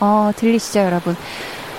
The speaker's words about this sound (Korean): 강릉 어우 파도가 이렇게 셌나? 네. 강릉 파도가 제법 세찬 지금 버전의 강릉 파도 소리가 들려오고 있고요.